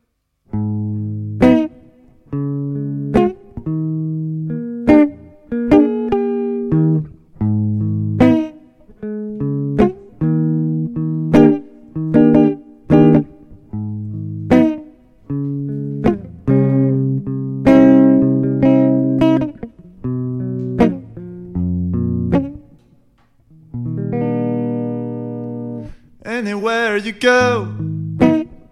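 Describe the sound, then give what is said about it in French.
A recorded music track plays loudly and steadily, with sustained, synth-like chords and deep bass notes shifting in a regular rhythm, and a brighter, busier passage near the end. “Et ça, c'est le morceau du coup que t'avais joué sur. ….”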